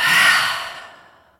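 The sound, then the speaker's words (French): A deep breath in through the nose, then a single forceful breath blown out through the mouth, loud at first, then trailing off over about a second like a long sigh, taken to re-energize during a relaxation exercise. No one speaks. “Et pour vous redynamiser, vous pouvez prendre une profonde inspiration par le nez et souffler fort par la bouche.”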